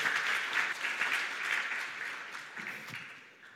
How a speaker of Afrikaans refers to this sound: So ek wil hê ons moet vir hierdie manne en vroue net 'n 'n lekker hande klap gee. Dankie, julle kan sit.